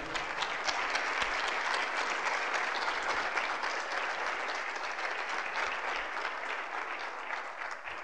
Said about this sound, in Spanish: Sí, dale un aplauso fuerte a Él, es digno de la gloria.